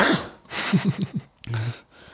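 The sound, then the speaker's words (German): Breathy gasps and a few short rhythmic catches of breath build up, then a sudden sharp sneeze bursts out with a brief voiced tail, followed by quiet breathing. “Gesundheit.”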